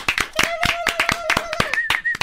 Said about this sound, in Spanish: Ya, bro, van a ser un minuto de, aplausos